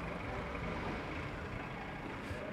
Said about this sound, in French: Une voiture avance doucement sur la place pour éviter d'écraser les enfants qui jouent.